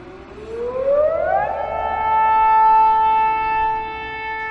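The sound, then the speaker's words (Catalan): A camp alarm siren winds up, its pitch climbing for over a second before settling into a loud, steady wail with bright overtones that holds to the end, with no voices present. “Com quan els crits i les alarmes del campament eren insuportables.”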